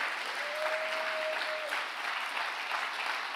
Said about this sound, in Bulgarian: О, ако ръкопляскаш, ръкопляскай, като че наистина вярваш в това.